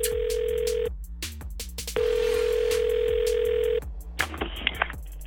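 A telephone line tone, then ringing as a call is placed: two long, steady electronic buzzes separated by a pause, fairly loud, with soft rhythmic ticking underneath and no one speaking.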